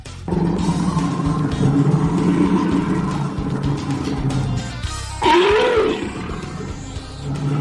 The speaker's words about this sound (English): Jim, what was that animal sound? I'm gonna go with a bear. I would say that you are correct.